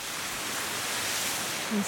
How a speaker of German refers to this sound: Es ist echt Wasser aus allen Richtungen. Gerade es regnet und aus dem Fluss kommt das Wasser und über die Felsen kommt das Wasser auch runter. Ich bin ziemlich nass.